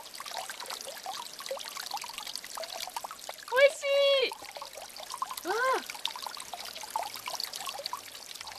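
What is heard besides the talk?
flowing river water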